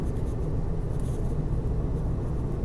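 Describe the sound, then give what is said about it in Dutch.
A steady, low engine rumble inside a moving car, a constant droning hum with faint road noise and no voices, holding an even loudness throughout. “Ik, zal, ik heb het nog niet gegoogeld, zit in de auto.”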